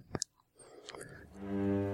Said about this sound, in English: and now, me softly chewing a wasabi Kit Kat.